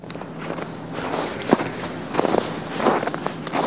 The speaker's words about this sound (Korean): 눈밟고 걸어가는 소리입니다. 네. 눈길 걸어가는 소리, 눈 밟는 소리예요. 일부에 나가는 노래에 이 눈 밟는 소리를 숨겨놓을 거예요.